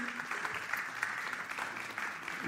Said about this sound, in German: Und es ist großartig, so viele Ehepaare hier zu sehen. Hammer, können wir denen mal einen Applaus geben? Richtig cool.